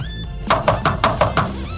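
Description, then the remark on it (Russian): Six quick knocks on a door land in a fast, even rhythm, fairly loud, with no voices present. “Вот это, это стучит нам нынешнее время, это стучит нам в дверь сегодняшний день.”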